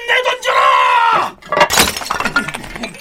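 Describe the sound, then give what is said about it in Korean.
A loud, drawn-out shout gives way to a sharp crash of roof tiles being thrown down from a fortress wall at attackers climbing it during a siege, breaking and shattering, with scattered clattering fragments continuing for over a second. “골맹이가 떨어졌으면 기왓장이라도 계속”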